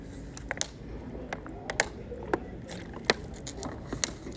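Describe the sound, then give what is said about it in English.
Someone sips Nestle Pure Life water from a plastic bottle: a quiet run of irregular sharp clicks and crinkles with soft wet squishing sounds between them, and no talking. “Uh, I'm gonna take a little sip here of water and drink some Nestle Pure Life.”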